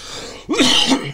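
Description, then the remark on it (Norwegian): A single sharp sneeze, a sudden burst of breathy noise with a short voiced edge, after a brief quiet moment and with no talking. “Unnskyld. Prosit.”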